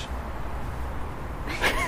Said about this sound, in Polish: No jest kot. Pokaż kota, kot poluje na coś.